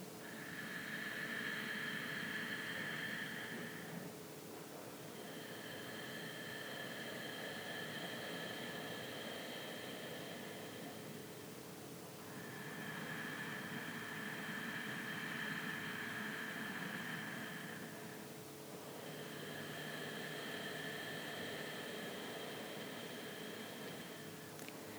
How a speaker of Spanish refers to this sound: Y ahora trata de hacer la respiración un poquito más audible, que se escuche ese susurro. Se puede escuchar un poco así.